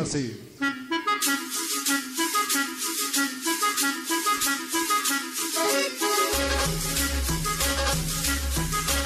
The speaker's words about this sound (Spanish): Vamos con un tema ritmo de cumbia, pues, pues, para que sigan por ahí conectando, disfrutando la buena música.